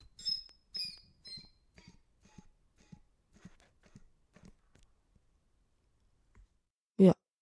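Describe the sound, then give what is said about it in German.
A series of soft breaths and airy puffs, some with a faint whistling edge, spaced unevenly, then a pause before one sudden loud exhale at the end. “Und besonders schön fand ich auch dein Atmen.”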